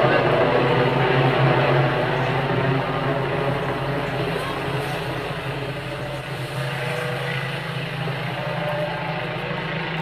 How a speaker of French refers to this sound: Il y a deux drones dessus